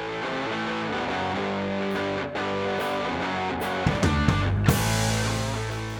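A loud rock song plays on its own as outro music, with thick distorted guitars, steady drum hits and a fuller, heavier surge of sound toward the end.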